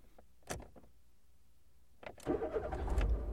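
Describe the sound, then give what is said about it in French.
A Dacia Sandero's engine cranks and catches after a couple of soft clicks, then settles into a steady rumbling idle as a mother and her son leave a restaurant in Villers to drive home, at 8:30 pm in clear weather; no one speaks. “Madame S et son fils partent du restaurant et reprennent donc la route de Villers jusqu'à leur domicile”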